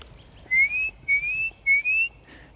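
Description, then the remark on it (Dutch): A Eurasian nuthatch calls from the woods with three clear, rising whistled notes in an even, repeating rhythm, fairly loud against a quiet outdoor background, with no talking. “Daar roept hij weer, hoor Hij, zat, hij zit nu daar in het bos.”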